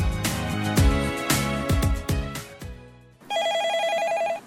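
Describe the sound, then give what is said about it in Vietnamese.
A brief burst of music with plucked, percussive notes cuts off, then a telephone starts ringing with an incoming listener call to the Vietnamese radio call-in show Chuyện thầm kín: a steady, warbling electronic ring, fairly loud, with no voices. “Và bây giờ thì chuyện thầm kín tiếp tục nhận được cuộc gọi của thính giả.”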